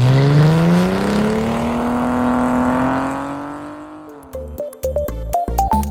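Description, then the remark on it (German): The 5-litre V8 engine of a new 2015 Ford Mustang revs loud, its deep growl climbing steadily in pitch for several seconds before breaking into a series of sharp, quick throttle blips. No one speaks. “Ein 2,3 Liter EcoBoost Turbo und der 5 Liter V8.”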